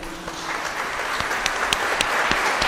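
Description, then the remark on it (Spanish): A crowd at a Palm Sunday gathering applauds the Lord steadily, a dense wash of many hands clapping at once with a few sharper individual claps standing out, sustained for a few seconds with reverberation. “Un aplauso al Señor, ¿eh?”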